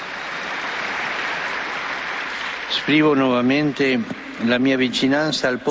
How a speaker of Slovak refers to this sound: Preto jeden veľký potlesk teraz pre nášho nového blahoslaveného.